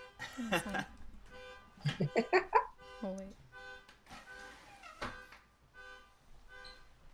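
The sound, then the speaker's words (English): A car alarm sounding outside cycles through warbling, wavering tones and then repeated steady electronic beeps, high-pitched and fairly loud, with brief bursts of voices and laughter mixed in. “Yeah, it's a car alarm.”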